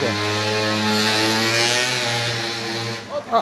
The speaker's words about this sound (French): On est donc en, plein air, hein, sur la place de Prades où une moto vient de passer.